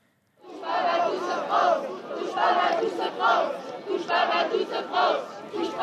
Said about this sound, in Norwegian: Taktfast roper de ut. Ikke rør mitt Frankrike! På Republikkplassen i sentrum av Paris. Unge multikulturelle franskmenn vise solidaritet og støtte med de mange som er rammet av terroren.